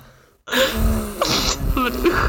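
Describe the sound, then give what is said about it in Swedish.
Forceful puffs of breath blowing dust off an old vinyl record in a basement, a few airy bursts in quick succession after a moment of near silence, with no talking. “Nej, men de, de måste ju blåsa av den om vi ska lyssna på den.”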